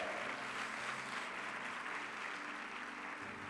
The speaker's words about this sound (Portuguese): Se você crê nisso, dê um brado ao Senhor e aplaudo neste lugar.